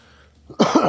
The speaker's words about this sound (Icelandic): hvaða hóst er þetta? Ég er nýbúin í COVID-testi ég er ekki með það